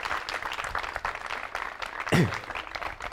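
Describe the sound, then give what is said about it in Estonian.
A crowd claps steadily to welcome a speaker, a dense wash of overlapping hand claps at moderate volume, with a brief low vocal sound rising over it near the end. “ja sellepärast ma tänan sind ja, ja võtame ta aplausiga vastu.”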